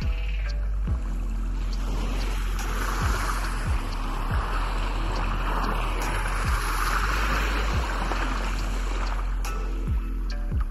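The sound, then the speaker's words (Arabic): Steady rushing wash of sea water with soft low thuds recurring every second or so, like small waves lapping against a boat, continuous, with no voices. “ورحت للبحر صديقي اللي أرمي فيه كل همومي وأشوفها تتجافز مع الأمواج ترقص معاها إلى أن تتعب وتتبخر”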